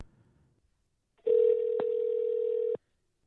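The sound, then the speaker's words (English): A single steady telephone ringing tone from a call being placed hums for about a second and a half, clear, with a brief click partway through, then cuts off to silence. “It's been 15 minutes and that one fucking phone call.”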